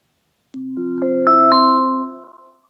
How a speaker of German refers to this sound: Es läutet. Es ist Irmi.